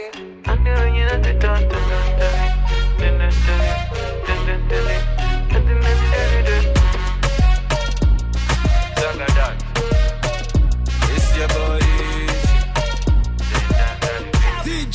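A loud Nigerian afrobeats song plays continuously on the radio, with a heavy, steady bass, crisp percussive hits in a bouncy groove, and layered melodic instruments. No one talks over the track.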